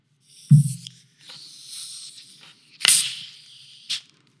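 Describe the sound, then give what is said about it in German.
A sharp crack of a sparkling water bottle cap twisting open, followed by a bright hissing rush of escaping gas bubbles that swells, bursts again, and ends with a short final fizz, with no talking. “Aber schau mal, ich habe hier eine Sprudelflasche und jetzt mache ich den Deckel ab und die Gasbläschen ändern den Aggregatzustand.”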